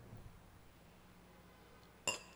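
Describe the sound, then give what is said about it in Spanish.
A single bright clink of wine glasses touching in a toast, sharp and ringing briefly near the end, after a stretch of quiet room hum. “Vamos a ver si está bueno. Chinchín, chin.”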